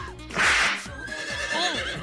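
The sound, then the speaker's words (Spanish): A horse with a stomach ache whinnies loudly, a breathy burst followed by a wavering, shaking neigh that rises and falls over about two seconds, with no one speaking. “Con la novedad que el caballo se siente mal de la panza, loco.”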